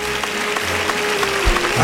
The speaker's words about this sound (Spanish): Sale a saludar la ovación del público Pepe Moral de Catafalco y Bordado en Plata. Ahí saluda la ovación Pepe Moral.